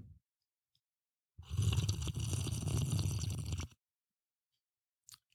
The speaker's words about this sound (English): I did the bong sound effect with the fizzy water.